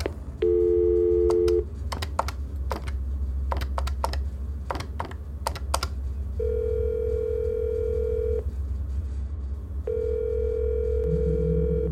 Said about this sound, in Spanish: Se levanta perezosamente, toma el teléfono y marca un número de memoria.